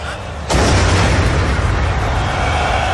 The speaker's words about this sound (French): Une déflagration retentit aux abords du stade, celle d'un kamikaze qui a actionné sa ceinture explosive.